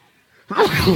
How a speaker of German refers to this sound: Hoppla, Entschuldigung. Gesundheit danke.